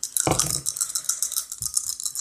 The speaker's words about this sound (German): Dann würfel mal deine vier W6.